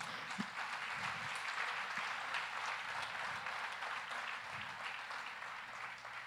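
An audience at a church service applauds Jesus steadily, a dense wash of many hands clapping at once that holds an even level for about six seconds.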